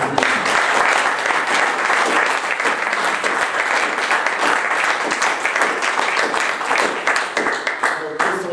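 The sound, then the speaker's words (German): Sustained audience applause for the two speakers of a talk, a dense, even wash of many hands clapping at steady loudness for several seconds, with no voices standing out above it. “Ralf hat vorhin noch gar keinen Applaus bekommen.”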